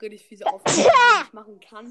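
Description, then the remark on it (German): A person talks, then lets out one loud, sudden sneeze, a sharp breathy burst trailing into a voiced tail, before speech resumes. “Gesundheit. Danke.”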